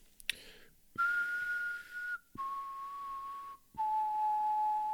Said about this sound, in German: währenddessen pfeife ich ein Lied.